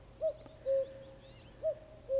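A common cuckoo calls its two-note cu-coo twice, a short higher note dropping to a longer lower one, clear and steady over faint background noise with no talking.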